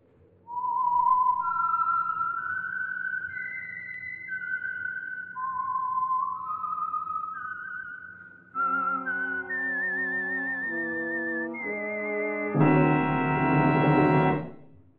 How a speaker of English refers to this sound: And for Sunday evening listening pleasure, the signal to listen for is this whistle that identifies the signal oil program, the Whistler.